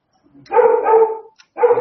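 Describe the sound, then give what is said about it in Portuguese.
A dog barks, a long drawn-out bark followed after a brief pause by a second one, loud and clear with no talking over it. “Começou a cachorrar.”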